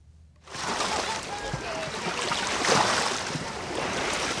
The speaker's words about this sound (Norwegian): Leser du anmeldelser, vil du se at bukta Cala Mayor like utenfor Palma er kjent for at bølgene er litt kraftige. Ikke skremmende store, men nok til at det kiler litt ekstra i magen til ungene når de svømmer ut for å utfordre dem der de bryter,